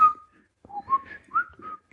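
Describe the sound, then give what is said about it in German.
A person whistles a short, bright ringtone melody: a held opening note, then a quick run of rising and falling notes, a little breathy and unsteady, with no talking. “ja, pfeift gerade nicht so.”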